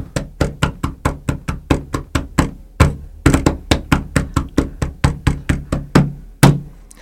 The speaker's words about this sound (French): Un petit jig à la radio.